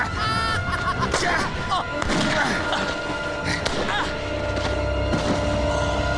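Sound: gunshots fired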